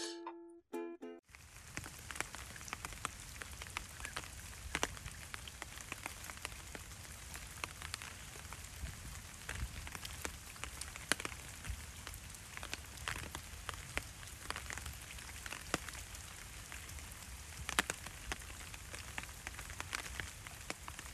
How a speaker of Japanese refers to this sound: ということで、えー、この日雨でして、あら、えー激雨でして、あらあら。